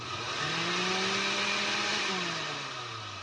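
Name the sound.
electric blender running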